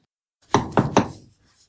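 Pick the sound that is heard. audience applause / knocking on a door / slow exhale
knocking on a door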